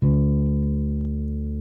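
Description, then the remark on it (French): A single low note is plucked on the D string of a bass guitar for tuning and left to ring, sustaining steadily with a rich, humming tone that fades only slightly over a second and a half. “Ensuite, je vais faire pareil pour la corde de Ré.”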